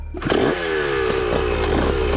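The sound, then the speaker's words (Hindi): A motorcycle engine roars, revving hard with a rising, buzzing whine that holds steady and loud for a couple of seconds, louder than the other bikes, just before a 10-kilometre race starts. No voices. “विजय की बाइक ने बाकी सबसे कहीं तेज दहाड़ना शुरू किया और जैसे ही रेस शुरू हुई विजय की बाइक तेजी से सबसे आगे निकल गई”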